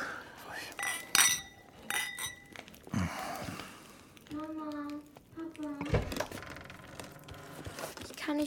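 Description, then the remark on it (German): Several glasses clink together in a toast in a quick series of bright, ringing taps, with voices murmuring and talking around them. “Auf euch. Zum Wohl.”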